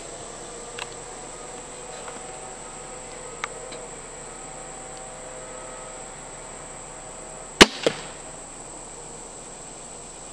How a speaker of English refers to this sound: I'd do anything to get anybody in the woods from whatever age to my age or older, and this crossbow allowed me to do that. So I'm gonna shoot a couple of arrows at this thing and uh, let's see what happens.